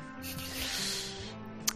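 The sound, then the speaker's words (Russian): A drink is poured into a glass as a man fills his own glass, a steady fizzing, splashing rush lasting about a second, ending with a brief sharp tick, over a faint low hum. “Эх, ну что, ждем пока. Пока главред наполнится себе”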